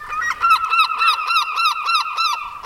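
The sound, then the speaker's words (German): A herring gull gives a rapid series of loud, harsh, nasal calls, around ten clipped notes in steady rhythm, bright and brassy, with no voices present. “Aus der schnöden, großen Silbermöwe, die immer ein bisschen zu viel Krach macht und ein bisschen zu selbstbewusst auftritt”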